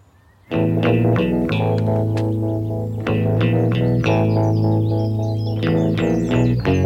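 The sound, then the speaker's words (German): A song's instrumental intro kicks in after a brief silence, full and loud with rhythmic strummed chords and effects-laden guitar, playing steadily with no voices. “Ich erzähle dir gleich, wie ich genau auf dieses Lied gekommen bin.”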